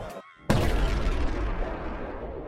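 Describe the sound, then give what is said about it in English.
After a brief near-silence, a crystal hovering above a generator shatters into one sudden, loud explosion with a bright light, its burst followed by a heavy, roaring rumble that slowly fades out over a couple of seconds. “The lights continue to flicker just before the crystal shatters, emitting a bright light and a large explosion.”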